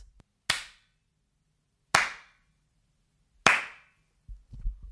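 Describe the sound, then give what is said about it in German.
Three slow, deliberate, sarcastic hand claps from a man in a bar, evenly spaced about a second and a half apart, each a sharp crisp smack with a short ring-off, followed by some soft low rustling at the end. “Kennt ihr das, wenn Leute so langsam klatschen als so ja, wenn Mittel Schule, von so wenn jemand mal was mm, runterklatscht in der Schule.”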